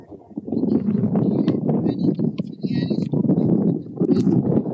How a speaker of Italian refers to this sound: Eh no, purtroppo si, sente, si sente il vento